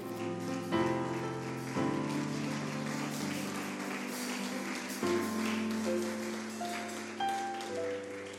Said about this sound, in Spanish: Dale un aplauso al Rey.